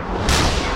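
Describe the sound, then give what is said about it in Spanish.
A sonic boom from breaking the sound barrier at Mach 1 hits abruptly, a loud blast that swells into a sustained, rumbling roar filling the rest of the moment, with no voices over it. “Esto es la barrera del sonido.”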